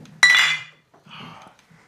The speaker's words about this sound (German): Das hat sowas von Schwerterklingen irgendwie. Ne? So. Ja. Das äh, Auf ins Gefecht. auch mit der Größe ja. zu tun. Mhm. Was ihr eben gehört habt, waren drei äh, Jever 05er Flaschen, die aneinander stoßten.